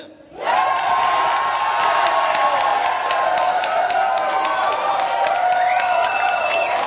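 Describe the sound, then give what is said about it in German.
A crowd at Karma 36 in Mitte bursts into loud cheering after a brief quiet start, a dense wall of shouts, whoops and clapping that holds steady, with shrill whistles cutting through. “Ja, und das bleibt dann auch unser äh, für dieses Statement einzige Jubelelement, das wir hier einbringen.”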